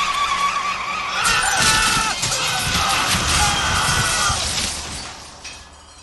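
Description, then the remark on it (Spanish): A car skids with a squealing screech, then overturns, rolling over several times in a loud run of crashing, tumbling impacts and shattering glass that fades out toward the end. No one speaks. “Instantes después, el auto volcó, dando varias vueltas.”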